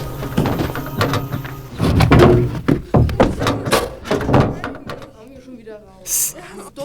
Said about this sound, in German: Jetzt die Tür zu vom Möbelwagen. Bin schon dabei.